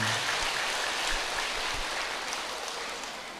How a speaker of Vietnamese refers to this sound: quý vị chúng ta cho thêm chàng pháo tay nữa nghe ừ.